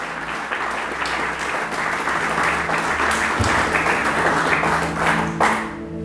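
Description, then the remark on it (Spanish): A church audience breaks into loud, sustained applause for God, dense overlapping clapping holding steady for several seconds before tapering off at the end, with faint voices mixed in. “Y denle un fuerte aplauso a nuestro Dios.”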